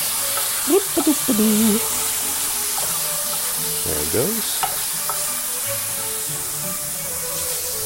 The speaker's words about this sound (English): So uh, maybe the pan's hot enough. I'm just gonna Plop the chicken in there. Ooh, you hear it. Sizzle, sizzle.